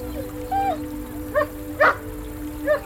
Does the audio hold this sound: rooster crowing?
no